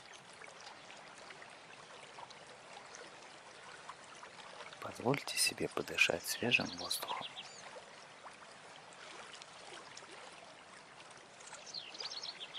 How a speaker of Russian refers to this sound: Прислушайтесь к танцу реки над каменистым ложем. Пусть ваши мысли ускользают вместе с рекой.